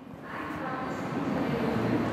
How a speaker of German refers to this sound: Ein Montagabend am Hauptbahnhof Zürich. Auf Gleis 14 steht der dunkelblaue Nightjet der ÖBB mit dem Ziel Berlin. Es sind noch 20 Minuten bis zur Abfahrt um 19.59 Uhr. Auf dem Perron trudeln schon die Reisenden ein.